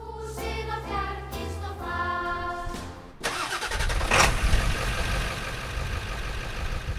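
A car engine, one of the cars driven from Reykjavík all the way up onto the glacier, turns over with a whining, tonal starter sound, then catches and settles into a steady, rough rumble that runs on fairly loud, with no one talking.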